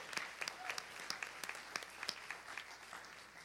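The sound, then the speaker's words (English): An audience applauds steadily during a church service honoring graduating high school and college seniors of the class of 2021, many hands clapping together in a dense, continuous patter with a few sharper claps standing out, moderately loud throughout. “Yeah, let's hear it.”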